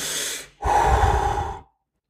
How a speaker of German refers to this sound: Audacity und ich bin gewechselt auf äh, Adobe Audition und aus irgendeinem Grund hat Adobe Audition jeden einzelnen meiner Atmer so laut gemacht, dass sich mein Podcast irgendwie so angehört hat.